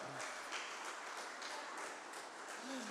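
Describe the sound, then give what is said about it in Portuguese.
A crowd applauds Christ, clapping steadily and loudly for several seconds, the dense patter of many hands with little variation, a faint voice briefly audible underneath. “Vamos aplaudir a Cristo bem alto. Vamos aplaudir o Senhor.”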